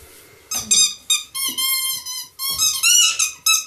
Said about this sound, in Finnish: se ei oikein hauku, että se vaan vähän niinku kiljuu. se on noin hiljainen, että sille ei mitään niin.